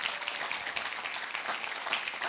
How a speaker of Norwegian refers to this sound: Gi en applaus for de som ba den bønnen første gang.